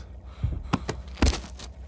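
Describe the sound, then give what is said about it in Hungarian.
An iron fire poker strikes a man several times, each blow a dull, heavy thud with a sharp crack on top, irregularly spaced, with no voices. “Ahogy Henton közelebb hajolt, a korbos vas lesújtott.”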